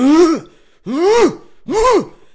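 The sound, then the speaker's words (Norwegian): A voice imitates a strange, loud throat clearing: three strained, groaning bursts with a rising-then-falling pitch, evenly spaced, with no words spoken. “Han må ha hatt noe Tourettes eller noe sånt, for det kom jo sånn hele tida.”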